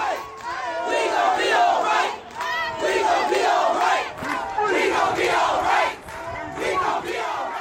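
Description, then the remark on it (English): A large protest crowd chants together in unison outdoors on a street corner, loud, repeating rhythmic phrases with short breaks between them and many voices blending into a steady roar. “We're all at different places on this kind of corner, and we just start thinking, we gonna be all right.”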